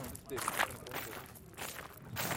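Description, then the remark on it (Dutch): Footsteps crunch along an outdoor mountain path at a steady walking pace, heading downhill past the main stage of a festival on a warm day of about 30 degrees, with a busy wash of background noise and voices around them. “Want we lopen nu langs het mainstage, lopen we nu naar het, het soort van bergpaadje naar beneden.”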